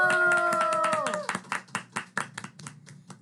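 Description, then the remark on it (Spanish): A held, pitch-dropping cry gives way to a smattering of applause as a small audience in the New York tri-state area welcomes an academy's creator and director: loud, irregular hand claps with a faint murmur of voices underneath. “Él es creador y director de la academia, así que recibámoslo con un fuerte aplauso.”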